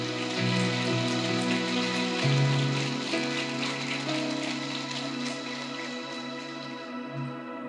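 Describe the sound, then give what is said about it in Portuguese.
An audience applauds loudly and steadily, a dense patter of many hands clapping for several seconds while sustained keyboard chords hold underneath, fading slightly toward the end. “Se é para aplaudir, aplauda com vontade, irmão.”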